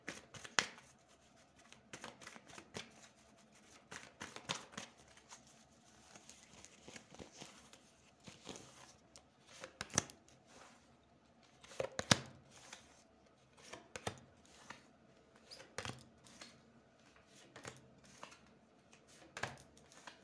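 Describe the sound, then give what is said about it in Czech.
Tarot cards being shuffled for a yearly reading for 2022, over and over, a steady run of crisp papery riffles and slaps, moderately loud, with brief pauses between bursts and no talking. “Eh, já už se dívám na vaši fotku, míchám u toho karty a podíváme se teda spolu, jak se bude barvit to období 2022.”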